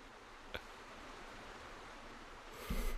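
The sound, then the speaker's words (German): A steady, soft hiss of rain pattering on a roof, with one sharp tick early on and a brief louder rumble of drops near the end. No voices. “Sehr geehrte Zuhörer, bitte hören Sie jetzt einfach mal 10 Minuten besinnliches Regentropfen auf dem Dach.”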